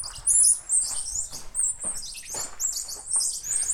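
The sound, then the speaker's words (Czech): Small monkeys, about three quarters of a kilogram each, in an outdoor enclosure give rapid, high-pitched bird-like chirps and squeaks, many overlapping calls in quick succession, steady throughout, while eggs are scattered among vegetables for them; no talking. “Opičky vydávají trochu ptačí zvuk a vajíčka sypete ještě mezi zeleninu.”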